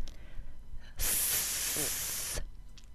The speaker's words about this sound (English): Say the unvoiced TH sound with me.